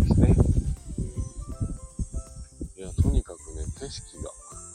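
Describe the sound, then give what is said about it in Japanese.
A steady, high-pitched drone of cicadas fills the background throughout, with a person talking over it and a soft low rush of ocean waves underneath, at a scenic spot on the tip of Sado Island, Japan. “今ね、BGM もなく、えーと、セミの声と波の音を BGM にラジオ放送させていただいてるんですけど”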